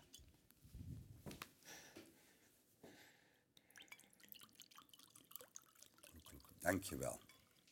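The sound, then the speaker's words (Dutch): Water is poured into a glass, a trickling, gurgling stream with scattered drips that swells into a louder splash near the end. “Ondertussen pak ik water.”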